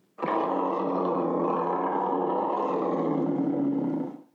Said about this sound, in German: Und wie klingt so ein Leopard? fragt Lala. Na ja, ungefähr so wie ein Tiger, etwa so.